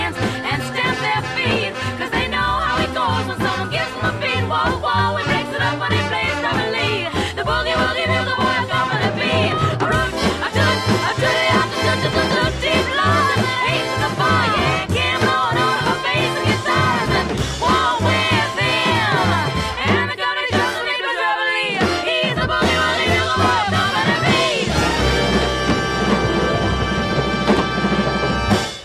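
A lively swing song plays at a steady, loud level, with singing voices weaving over a busy, bouncing band and a brief break shortly before the end.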